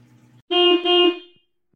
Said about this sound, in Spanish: Después escucho que mi papá enciende el carro y pita para irnos a la escuela.